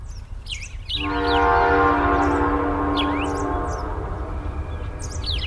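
A train horn sounds one long, steady blast over the continuous low rumble of a passing train at a simple, small railway station in the rural Tigiri area, then fades, while birds chirp faintly in the background.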